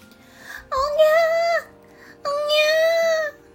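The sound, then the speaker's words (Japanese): A baby cries in two long, drawn-out wails, each lasting about a second with a short pause between them, heard beside a waterfall. The cries are loud and high-pitched, with no talking over them. “滝のそばまで来るとおにゃおにゃおにゃと赤ん坊の泣き声が聞こえてきました”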